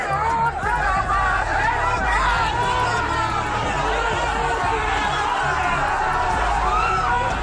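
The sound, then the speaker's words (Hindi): A dense crowd of hundreds of Osama's supporters at a court during his hearing chatters continuously, many overlapping voices forming a loud, steady hubbub with occasional raised shouts, filling the whole stretch. “बता दें कोर्ट में पेशी के दौरान ओसामा के सैकड़ों समर्थक पहुंचे हुए थे समर्थकों की भारी भीड़ की वजह से कोर्ट में पेशी के दौरान पुलिस को कड़ी मशक्कत करनी पड़ी इस दौरान कोर्ट परिसर में ओसामा जिंदाबाद के नारे भी लगे”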